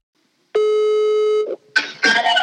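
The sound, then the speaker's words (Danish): A single steady ringback tone of an outgoing phone call, sounding for about a second, clear and fairly loud, followed by a burst of line noise and clatter as the call connects. “Så jeg tænkte, det måske kunne være en idé at prøve at ringe til ham.”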